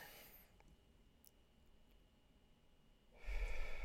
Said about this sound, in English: And two more, breathing in deep And breathing out long. And one more, breathing in deep.